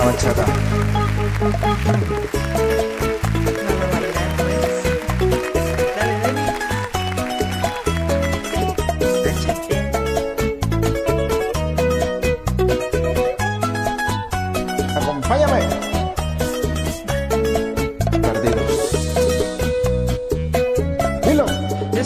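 A song plays loudly and continuously, with a steady, driving beat and layered instruments carrying a full, bright melody from start to finish.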